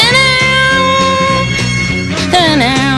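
A cover of a blues song plays loud and full, with a steady, rhythmic bass line pulsing under sustained melodic lines and a sliding vocal phrase near the end.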